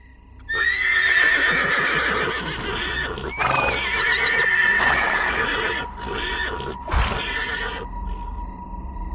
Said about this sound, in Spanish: Pasaron los minutos y ya cuando me estaba venciendo el sueño, escuché a los caballos levantarse, aparentemente muy asustados.